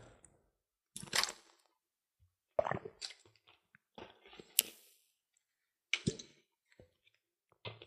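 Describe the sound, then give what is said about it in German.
Wet clicks and small squishy mouth sounds come in several short bursts as a person takes a sip of water and swallows, with quiet pauses between. “ich muss mal kurz einen Schluck nehmen, kurz, kurz einen Schluck Wasser nehmen.”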